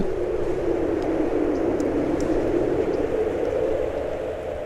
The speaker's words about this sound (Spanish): Mira, escucha el viento. A ver.